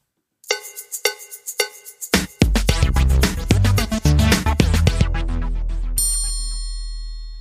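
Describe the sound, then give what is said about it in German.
A triangle rings out in a few bright, spaced metallic strikes, then keeps hitting as a loud, bass-heavy beat and dense music crash in, ending with a sustained high shimmer. “Ich würde sagen, es ist eine Triangel.”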